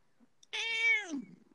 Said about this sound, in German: Hat da gerade eine Katze die Aufnahme angenommen?